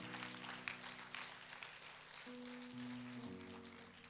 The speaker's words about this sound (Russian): Давайте подарим еще нашему Господу аплодисменты. Ему вся честь, ему вся слава.